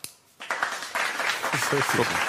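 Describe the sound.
A burst of audience applause starts abruptly and continues as a dense, steady patter of many hands clapping, with a voice briefly heard over it near the end.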